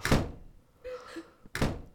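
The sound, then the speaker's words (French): Two loud, heavy slams of doors in a house, about a second and a half apart, each a sharp booming thud, with faint creaking and rattling in the quiet gap between them. “Les portes qui claquaient tout le temps, mais ça claquait dans cette baraque.”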